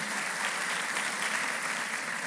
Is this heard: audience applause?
yes